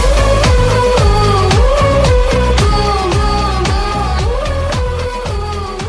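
A loud, full-band song plays with a steady, driving bass beat and sustained melodic layers, its level easing off slightly in the final seconds as it nears its end. No talking.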